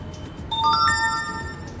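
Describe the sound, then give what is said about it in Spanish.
A phone notification chime for a new like on social media rings out, a quick sequence of a few bright, stepped electronic tones that hang briefly over a quiet background hum, with no one talking. “Anda, mira, un me gusta.”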